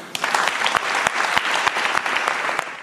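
Steady audience applause, a dense patter of many hands clapping at an even, sustained level with sharp individual claps popping out, and no voices over it.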